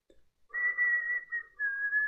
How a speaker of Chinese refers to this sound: 很快，这个瘦子掏出这个家伙事儿，对准我，手捏着，嘴里吹着阵阵的口哨。